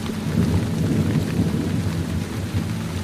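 Steady, heavy rain pours down continuously while deep thunder rumbles low and sustained underneath, filling the whole stretch with a dense storm sound and no voices.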